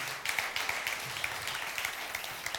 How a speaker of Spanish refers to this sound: ¿Cuántos pueden decir amén y darle un fuerte aplauso a su Dios en el día de hoy?